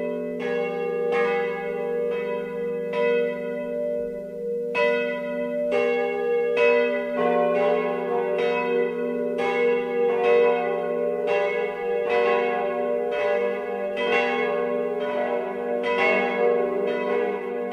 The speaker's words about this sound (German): Es ist 12 Uhr. Das Mittagsläuten kommt heute aus der Pfarrkirche Marie Himmelfahrt in Ranoldsberg in Oberbayern.